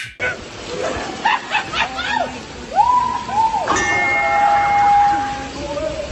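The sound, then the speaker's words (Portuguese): A person's forehead strikes an iron object with a single loud clang that rings on for over a second, with voices and chuckling around it. “Mano, imagina a força que tu tem que dar com a testa numa parada de ferro dessa para fazer esse barulho alto desse jeito, cara.”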